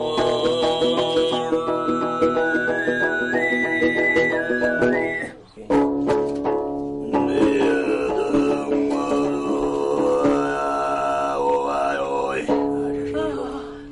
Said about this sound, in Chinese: 我们一般叫西格拉夏哈布鲁还是高音、低音、中音、超低音。最难的叫高音，也叫哨音，跟口哨一样。